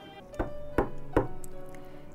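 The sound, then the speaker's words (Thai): Three firm knocks of a hand on a closed door as a signal, evenly spaced about a second apart, distinct, with a low steady hum underneath and no talking. “ยืนดูทางที่ปิดอยู่ ลองเอามือเคาะให้สัญญาณ”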